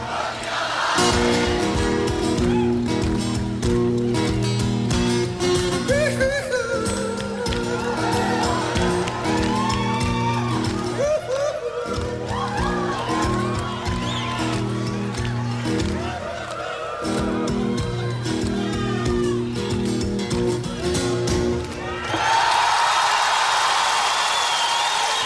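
A live rock band plays loudly with crowd noise underneath at a concert for Amnesty International at the Palais Omnisports in Paris on the evening of 10 December 1998, then the music ends and a large audience bursts into sustained applause and cheering for the last few seconds.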